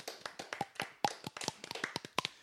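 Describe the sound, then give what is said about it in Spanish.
Brisk hand clapping, a quick run of sharp, crisp claps in a slightly uneven rhythm, like a small group applauding for a couple of seconds with no voices. “¿Aplausos? Aplausos, aplausos, aplausos.”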